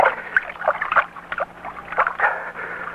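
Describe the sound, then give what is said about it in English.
Cold water sloshes and splashes in a water bucket for a few seconds, with irregular bursts of movement as a bleeding hand is dipped and swirled in it; no one speaks. “Get me the water bucket. Yes, Father. Here. Here, I have it. Here, Father, put your hand in this.”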